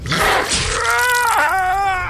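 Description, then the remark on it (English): A loud snarl from an attacker pouncing on a man and clamping her teeth around his neck bursts out with a rough, noisy attack, then stretches into a strained, tonal growl that dips and wavers for about two seconds. “launching towards him with a growl, her teeth clamping around his neck,”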